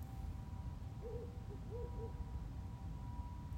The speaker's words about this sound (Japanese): 今いるのは、えー、もう日が暮れて、えー、真っ暗になり直前ぐらいの畑なので、えー、っとですね、もしかしたら時々フクロウの声が、あ、入った。